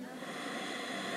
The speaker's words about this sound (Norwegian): Ett pust inn